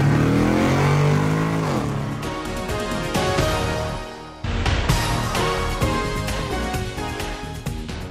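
A car engine revs loudly and accelerates, its pitch climbing through the gears with a brief drop at a shift midway, continuing to pull hard with no one talking.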